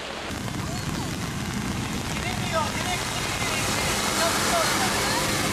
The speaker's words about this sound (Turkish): Ve mega kent İstanbul. Öğle saatlerinde bastıran şiddetli sağanakla Ayamama Deresi taştı.